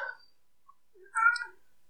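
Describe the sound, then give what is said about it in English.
A single short cat meow, a brief bright cry after a moment of quiet, preceded by a faint snippet of sound at the very start. “my cat says hi.”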